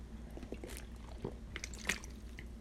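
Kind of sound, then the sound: food or drink, drinking water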